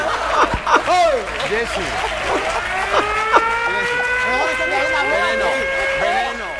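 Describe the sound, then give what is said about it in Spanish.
A bumper car ride's warning alarm comes in partway through as a steady, sustained electronic tone, sounding over a lively crowd of chattering voices and laughter. “Ponen la alarma de los coches de choque.”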